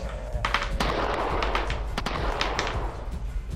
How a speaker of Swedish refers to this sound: Och ni andra som står i gången, ni har väl precis börjat få en överblick av det här rummet och hör liksom fyra, fem, sex skott avlossas här inne. Ekar i den här jävla kammaren.